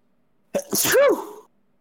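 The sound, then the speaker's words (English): A single loud sneeze bursts out after a short quiet pause, with a sharp intake and a drawn-out voiced exhale, then silence. “Bless you.”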